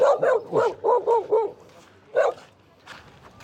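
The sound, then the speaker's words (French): A dog in Mauritius, in front of a hotel, barks at a passer-by in a quick run of five or six sharp barks, falls quiet for a moment, then lets out one more bark. “J'ai eu peur, je passe devant un hôtel et j'ai un chien qui est venu m'aboyer dessus.”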